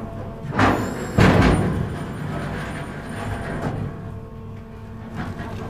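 The connecting ferry Otava brakes as it comes in to the shore of Haapasaari island: a steady low mechanical rumble with two louder surging bursts early on, then a churning drone that continues to the end.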